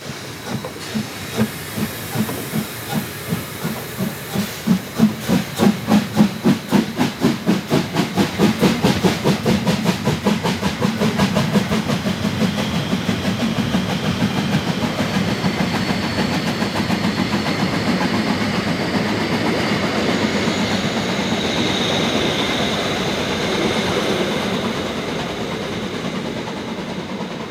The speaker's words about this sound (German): Wir befinden uns nun im Örtchen Netzkater, das ist Nähe der Eisfelder Talmühle. Und wir hören nun die Abfahrt des Dampfzuges. Es zieht dieselbe Lok 99 7237.